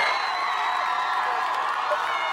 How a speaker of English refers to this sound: And then you can see everybody just cheering and praising out in the middle of the parking lot. Isn't that awesome?